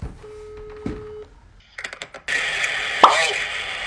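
A phone call being placed: a steady dial tone, a few quick clicks and short electronic beeps of dialing, then a buzzy connecting line noise, with no talking.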